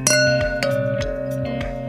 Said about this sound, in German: Oh, Aber das klingt wie so ein äh, Gong beim Yoga-Unterricht. Ja, war, war ein bisschen äh, umständlich gemacht bei mir. Ich habe eine volle Bierflasche an ein Glas Wein gedockt